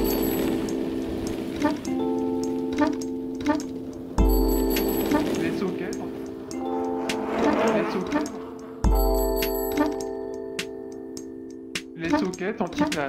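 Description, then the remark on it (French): A short musical jingle built around a steady ticking clock, with sustained tones and bright chimes that restart in repeating sections, loud throughout. “Allez, on laisse la place au socket en titane générique.”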